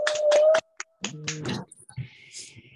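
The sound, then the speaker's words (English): A few sharp hand claps in quick succession as people clap for a woman, followed by scattered softer taps and rustling noises with no voices. “So y'all clap for her.”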